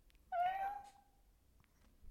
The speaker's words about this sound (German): Ich habe deine Katze im Hintergrund gehört, sie hat miau gemacht. Die ist draußen, also die ist im, im Flur. Aber ich habe es gehört.